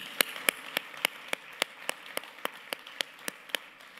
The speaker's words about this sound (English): Let's applaud our guests this morning, okay?